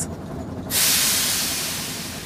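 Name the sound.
steam train hissing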